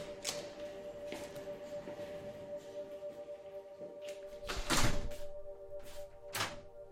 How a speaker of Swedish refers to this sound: Det som ska finnas inne på en av toaletterna. Vi går in och stänger dörren.